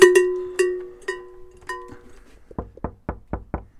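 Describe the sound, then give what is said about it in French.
A small bell at the door of a caravan chalet rings in a quick series of bright, ringing strikes that fade out, followed by five sharp knocks in a steady rhythm, with no voices. “Tu as entendu la, petite cloche.”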